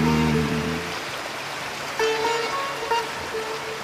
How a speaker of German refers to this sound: Der Mensch besteht aus Wasser. Wasser bedeutet Leben. Lauschen Sie gemeinsam mit mir den Schwingungen des Wassers. Stellen Sie sich vor, Ihr Gehörgang wird durch die plätschernde Flüssigkeit gereinigt.